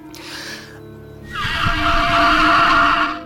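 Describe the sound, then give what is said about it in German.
A velociraptor call blown through a resonance chamber model: a brief, thinner cry, then a loud, drawn-out, raspy shriek with a whinny-like screech, with no talking. “Hier haben Sie die Resonanzkammer eines Velociraptors. Hören Sie sich das an.”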